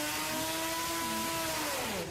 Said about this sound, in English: Oh my god, it sounds like a buzz saw. Sounds like a chainsaw. That's not car screeching, man.